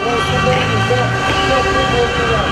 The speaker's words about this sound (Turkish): Kızılay'daki gösteriye katılan protestocular polisin müdahale etmemesi için yolu trafiğe açık tuttu. Protestoculara yoldan geçenler de korna çalarak destek verdi.